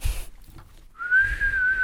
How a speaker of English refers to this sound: That was kind of a whistle.